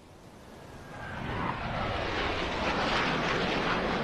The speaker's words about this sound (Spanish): Sí puedes mover el, mira, y ahí se ve el avión, mira.